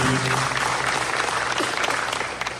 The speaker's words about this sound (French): être vous prêt à applaudir l'équipe, le nouveau équipe qui va diriger